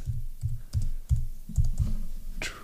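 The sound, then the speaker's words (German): Keyboard typing: a short run of about seven muffled, low-pitched key taps in an uneven rhythm, ending with a brighter, sharper click, as the phrase "Heightening Trepidation" is typed into a Google search. No voices are heard. “Ich habe das Wort eingegeben und das Erste, was kommt, ist, das Erste, wo Google mich hinschickt”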